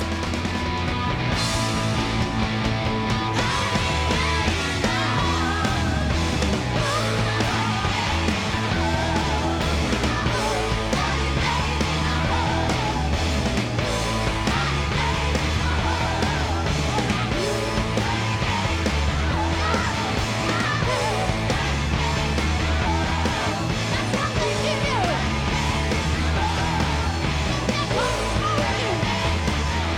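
A rock song recorded live plays at a steady, loud level throughout, with dense distorted guitars, a driving bass line, pounding drums and shouted, yelling vocals.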